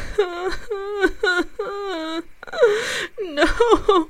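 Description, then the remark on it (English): A voice imitates quiet, halting sobs, as if a number of people were weeping: a series of short, wavering whimpering cries with breathy catches between them, fairly soft, with no words spoken. “Then I heard subdued sobs.”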